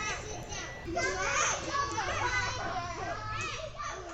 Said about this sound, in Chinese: 好，离开宿舍之后，因为我的宿舍隔壁是幼稚园，所以常常都会听到幼稚园里面小朋友就是非常活力充沛的声音。